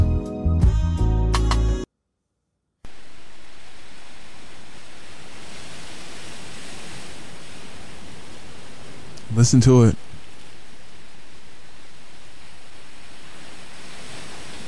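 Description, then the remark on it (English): After a brief spoken line and a moment of silence, a steady, even wash of ocean surf rolls on continuously at moderate volume, broken once by a short, sharp cry partway through. “Which coast you on? Where you at? I'm right there with you.”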